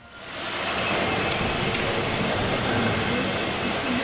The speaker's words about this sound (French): Vous l'entendez, ça travaille sur le parvis de Notre-Dame.